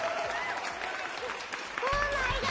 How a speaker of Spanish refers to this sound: Un aplauso, por supuesto, gracias.